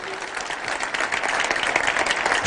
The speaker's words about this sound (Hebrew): שהם ברוך השם עשו עבודת קודש, מגיע להם כפיים, יישר כוח גדול